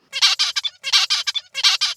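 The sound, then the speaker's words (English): Zebra finch song with altered motifs from a young male bird whose CNTNAP2 expression was knocked down in its song control circuit: three quick repetitions of a bright, buzzy chirped phrase, each a burst of several harsh syllables, heard alone without voices. “Compared to the tutor song, Young male birds with this disruption produce songs with different motifs.”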